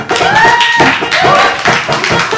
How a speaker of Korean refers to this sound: 큰 박수 주십시오.